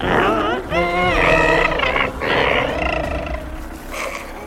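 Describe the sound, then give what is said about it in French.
A loud, intense creature growl, rising and warbling in long roaring bursts with brief breaks, alone, apparently produced by a human voice imitating the beast; in the story it is heard by two children leaving Kalmada and likened to a mix of a dolphin cry and a creaking door. “Les deux enfants s'éloignaient de Kalmada lorsqu'ils entendirent un grognement intense.”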